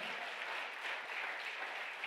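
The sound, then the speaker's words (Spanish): A crowd claps steadily, a dense and continuous patter of many hands at an even loudness throughout, with no voices rising above the applause. “Vamos, denle el aplauso fuerte.”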